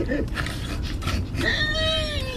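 A pig squeals, a high, drawn-out cry that slides slightly downward, preceded by a few short snuffling grunts against a low background rumble.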